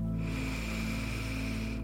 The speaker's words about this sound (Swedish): Andas nu tre andetag lite djupare och lyssna till hur det låter. Andas in.